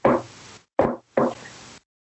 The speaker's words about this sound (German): Ähm, es gibt ja dieses Klopfzeichen. Dieses. Ja.